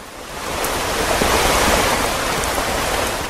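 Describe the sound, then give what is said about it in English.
Steady morning rain falls in a dense, even hiss, a wash of fine patter that swells in and holds at a constant level throughout, with no voices. “It's raining again.”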